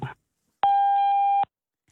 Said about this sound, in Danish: Det kaldte nummer svarer ikke. Indtal en besked efter tonen.